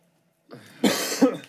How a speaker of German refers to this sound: Digga, was ist mit meinem Husten los?